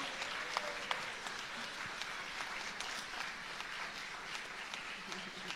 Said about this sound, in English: really proud of these guys. Can you give them one more big clap? That was so beautiful.